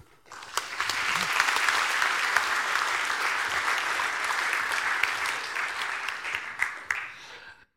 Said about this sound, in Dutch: Ehm, ik wil graag een hartelijk applaus